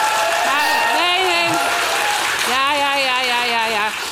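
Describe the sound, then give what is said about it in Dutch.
Loud, sustained applause from an audience that includes party members in the hall fills the whole clip, a dense wash of clapping with voices shouting and cheering over it. “Maar eh, zo'n heel hard applaus.”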